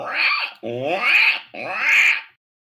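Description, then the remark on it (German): A person imitates a pig with three loud, drawn-out grunting squeals in quick succession, each burst rough and nasal, with no talking around them. “Ah, ich glaube, du hast mir auf der Party Schweinegeräusch gemacht.”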